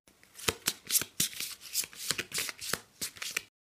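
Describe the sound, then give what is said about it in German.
Crisp papery flicks and snaps of tarot cards being handled as the next card, the Ace of Coins, is turned over, about a dozen quick strokes in an uneven rhythm, with no one speaking. “Okay, dann drehe ich die nächste Karte um.”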